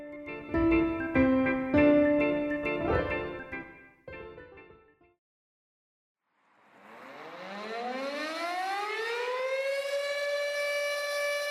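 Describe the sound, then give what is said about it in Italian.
After a stretch of musical tones and a brief silence, a factory air raid warning siren in the industrial area of Sesto San Giovanni winds up at 10 a.m. on 1 March 1944, its pitch rising steadily and then holding in a loud, sustained wail. “Nelle fabbriche dell'area industriale di Sesto San Giovanni, tutte le mattine, alle 10 in punto, vengono avviate le sirene per verificare che funzionino, per dare l'allarme in caso di bombardamento.”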